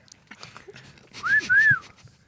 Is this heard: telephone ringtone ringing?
no